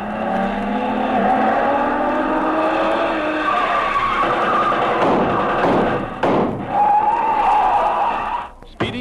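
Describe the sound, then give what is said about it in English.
A car heading toward the same destination as another car: its engine roars while tires squeal and skid in long, harsh screeches, broken by a couple of sharp bursts and a sudden dip near the end. “toward the same destination is another car.”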